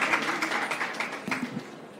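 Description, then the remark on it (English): A burst of audience applause, a dense crackle of many hands clapping that stays steady, then thins and fades slightly toward the end, with a brief voice murmuring underneath. “Round of applause.”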